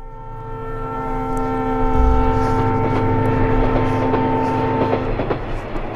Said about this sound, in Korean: 기차 소리, 기적 소리입니다. 오늘 보물 소리예요.